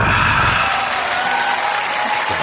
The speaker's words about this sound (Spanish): Un aplauso falso porque... ¿eh? Un aplauso de la gente que falleció hace ya décadas.